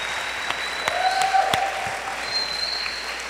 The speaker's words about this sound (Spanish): Por favor, un fuerte aplauso para ellos.